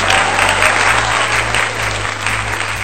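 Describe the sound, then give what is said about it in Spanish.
A crowd claps steadily for about three seconds, a dense, even wash of applause that stays loud throughout without fading, with no voices standing out above it. “Entonces pido un aplauso para todos ellos que se preocupan por nosotros.”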